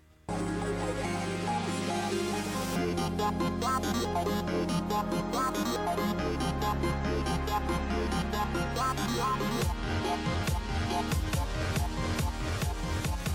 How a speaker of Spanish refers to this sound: Lo que estás escuchando es un set de música electrónica del